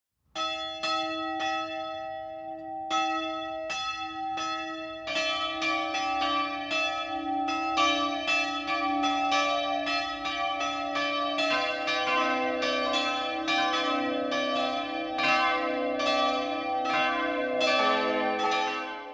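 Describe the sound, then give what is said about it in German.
Church bells of the Protestant Epiphaniaskirche in Eschau, Lower Franconia, Bavaria, ring the 12 o'clock midday peal: four bells weighing together over a tonne, the heaviest 454 kg, overlapping at different pitches in a steady, continuous rhythm, loud and resonant with no voices present. “Das Mittagsläuten kommt heute von der Epiphaniaskirche im unterfränkischen Eschau.”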